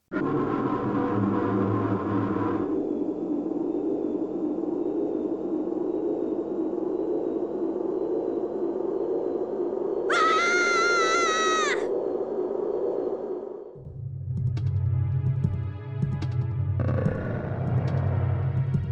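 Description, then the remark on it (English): Murky, droning game music from the dungeon inside Lord Jabu Jabu's belly, with a steady beat, slow strings and no melody, broken up by loud gurgling, belch-like bodily noises and a brief high warbling tone partway through. No one speaks. “The music in the dungeon is held together by a steady beat and slow strings. It's punctuated by bodily sounds that sound like belching or indigestion.”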